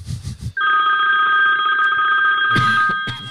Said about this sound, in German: Ich wusste gar nicht, dass du so einen modernen Klingelton hast.